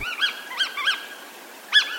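Four short, nasal snipe calls ring out clearly, three in fairly quick succession and a final one after a brief pause, with no voices and only faint background hiss.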